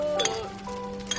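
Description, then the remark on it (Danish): Two bright glass clinks ring out in a toast, one near the start and another about a second later, their tones lingering briefly over a quiet hum. “Skål for traditioner! Skål! Skål!”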